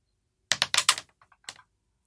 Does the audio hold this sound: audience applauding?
no